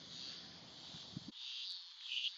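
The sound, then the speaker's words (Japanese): Cicadas drone in a steady, high-pitched buzz that fills the whole clip without pause, moderately loud and slightly swelling near the end, with faint low background rumble early on and no talking. “あの、その時も、あの、セミの声聞こえたと思うけど、こ今回もね、セミの声たくさん聞こえてますんで。”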